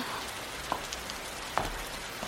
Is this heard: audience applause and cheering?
no